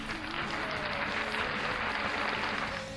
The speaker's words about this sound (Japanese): はい、えー、セルフ拍手でありがとうございます。